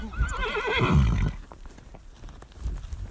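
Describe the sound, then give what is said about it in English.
An Arabian mare gives a loud, quavering whinny lasting about a second, then hooves clop in uneven, scattered steps as she is ridden to herd cows, with no one speaking. “So that's Pistol. She's my girl a little Arabian mare that I got.”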